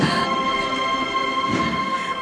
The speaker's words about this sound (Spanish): Bueno, pues suenan los últimos compases de esta marcha, Cristo del Amor.